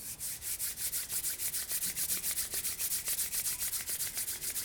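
Palms rubbing briskly together in a steady, fast back-and-forth rhythm during a guided breathing exercise, a bright hissing friction sound with no talking over it.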